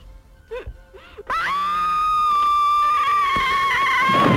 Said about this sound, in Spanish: Yo os voy a poner un grito y a ver si sabéis si es la madre o la hija.